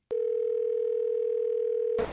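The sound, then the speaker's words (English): A steady, unbroken telephone dial tone hums for about two seconds, clear with no voices, then cuts off in a brief burst of noise. “Phone a friend.”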